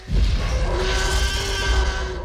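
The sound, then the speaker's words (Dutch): A thunderous T. rex roar sound effect from a film, loud, holding for about two seconds with a deep rumbling bottom and a harsh, screeching upper edge, no speech. It is a mix of various animal sounds, including a whale's blowhole. “En dan die fenomenale brul, die zo bekend is dat ieder kind zelfs weet dat het een T-Rex is die je hoort.”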